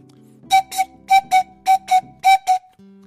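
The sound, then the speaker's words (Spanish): A Mapuche pifilca whistle blows eight short, breathy, shrill blasts, grouped in quick pairs with brief pauses between them, loud, with a faint low hum underneath and no talking. “Esta es la pifilca, por ejemplo.”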